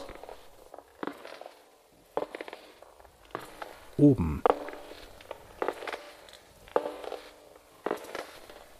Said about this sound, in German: Langsame Schritte. Langsame, feuchte Schritte. Langsame, feuchte, klebrige Schritte, die lauter werden. Die eine Stufe nach der anderen bewältigen. Abwärts.